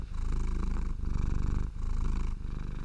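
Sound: cat purring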